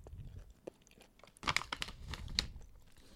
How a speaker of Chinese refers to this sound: 哦哦，大家刚刚听到我在那边嗯半天，然后还翻包装看了一下，是因为我想要确定一下我买的口味是不是对的。